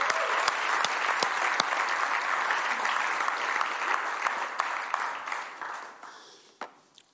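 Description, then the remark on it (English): A church audience applauds steadily, a dense wash of clapping with a few sharper individual claps standing out, holding for several seconds before tapering off toward the end. “They won't all hear you, but can we give them a round of applause this morning?”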